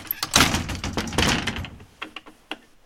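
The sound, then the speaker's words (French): A door in a foley studio is opened and shut: a rough, rattling swing followed by a few sharp latch clicks and knocks, with no voices. “Et dans le studio, il y a plein de portes.”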